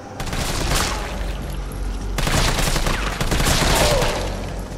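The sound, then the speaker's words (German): A rapid fusillade of fatal gunshots cracks out in a loud, dense, continuous barrage, with a brief break partway through before the volley resumes just as intensely. No one speaks. “Die Schüsse beendeten das Leben.”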